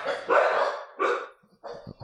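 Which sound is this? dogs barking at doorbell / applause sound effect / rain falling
dogs barking at doorbell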